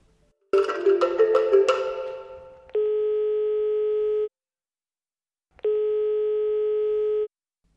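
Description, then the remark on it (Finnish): A quick burst of dialing tones, then two steady ringback tones of an outgoing phone call placed by a Fida and Radio Dei programme to a mission worker, each lasting about a second and a half with a pause between, clear with no voices. “tällä kerralla soitamme”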